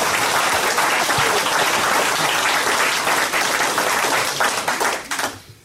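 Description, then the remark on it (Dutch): A concert audience claps warmly for the performing musicians in a dense, sustained burst of applause that stays loud for several seconds before tapering off near the end, with no voices over it. “Dus, eh, geef ze nog één keer, of nou ja, een voorlaatste keer misschien een heel warm hartelijk applaus.”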